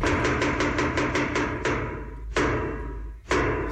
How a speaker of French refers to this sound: Quand tu vas au théâtre, t'as les trois coups.